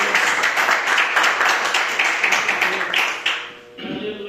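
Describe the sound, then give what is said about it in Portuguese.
A church audience claps in praise of the Lord Jesus, a dense, steady burst of many hands, loud and continuous for several seconds before thinning out and giving way to murmuring voices at the end. “E as palmas, que, eu agradeço a oportunidade e as palmas que louvam ao Senhor Jesus.”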